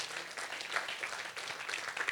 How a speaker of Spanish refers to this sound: Den un aplauso al Señor esta noche